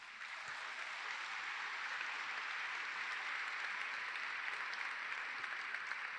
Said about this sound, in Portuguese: Vamos aplaudir esse Pai maravilhoso.